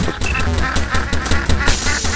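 A duck quacks repeatedly in quick, loud bursts during a points-scoring game, over a dense, busy background of music and sharp effect sounds that keep going throughout.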